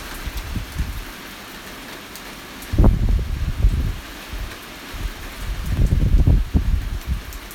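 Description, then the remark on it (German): Thunder rumbles low and deep in two rolling swells, the first starting abruptly and the second building more gradually, over a steady hiss of rain. No one speaks. “Ui, da donnert's.”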